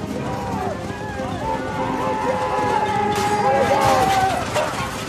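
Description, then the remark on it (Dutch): Horses gallop in a chaotic battle scene between Burgundian and French forces, hoofbeats mixed with shouting crowds, arrows and clashing noise, loud and continuous throughout. “Eh, we hoorden pijlen, eh, paarden, ook een enkel kanon, kan ik me voorstellen.”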